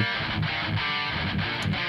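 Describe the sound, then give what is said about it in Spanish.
A technical death metal track by a band from Sonora blasts at full volume, dense distorted guitars churning over rapid, pounding drum hits in a steady driving rhythm, with no one talking over it. “hacen un death metal técnico bastante chido, muy bien producido. Vamos a poner una canción que suena más o menos así.”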